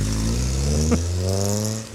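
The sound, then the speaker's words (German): A car engine hums steadily, its low droning tone holding for a moment before briefly rattling and fading slightly as the car drives away from a hotel. “da, da, siehst du da vom Hotel fährt gerade ein Auto weg.”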